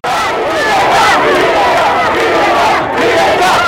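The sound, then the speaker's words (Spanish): Thousands of protesters in Cuba shouting together, a dense, loud, continuous roar of many raised voices with chanting swells, steady throughout with a brief dip near the end. “Las voces de miles de manifestantes hicieron eco en Cuba, nación que se vio sacudida el fin de semana por el clamor de quienes buscan un cambio en ese país.”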